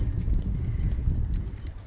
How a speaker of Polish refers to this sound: A dodam tylko, że nasi jur jurorzy zmagają się z silnym wiatrem, także także brawa wielkie.